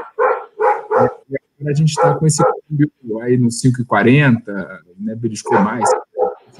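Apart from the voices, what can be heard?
dogs barking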